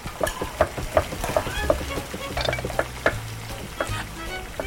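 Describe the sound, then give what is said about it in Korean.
Pork belly (samgyeopsal) sizzles and crackles as it is grilled in a pan in a kitchen, a steady hiss broken by sharp, irregular pops and the clatter of utensils stirring and scraping, with no voices. “지글지글 삼겹살 굽고 보글보글 된장찌개 끓일까?”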